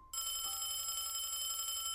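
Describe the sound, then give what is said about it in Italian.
A hotel room telephone suddenly starts ringing, a bright, continuous electronic bell, fairly loud, holding steady without pause. No one speaks. “Improvvisamente il telefono della camera comincia a squillare.”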